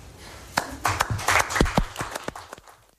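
Brief, scattered applause from a small group at a Children's Day event at the Turkish Prime Ministry with Prime Minister Erdoğan, the claps uneven, swelling for a couple of seconds before thinning out into a few last claps.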